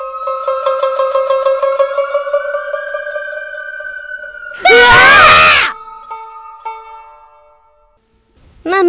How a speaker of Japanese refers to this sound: えー、お話の中では悲鳴が最後になってるんですけれども、ただ私のレッスンの中では、私が用意スタートから、もう一回手を叩くまではお芝居を続けてくださいという風にお願いしております。